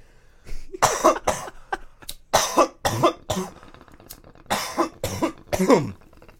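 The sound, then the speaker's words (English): A run of harsh coughs to clear the throat comes in quick bursts, about eight or nine in total, with brief gasping pauses between them and no talking. “I'm partly just coughing to clear it out, but I know what those dabs do to you.”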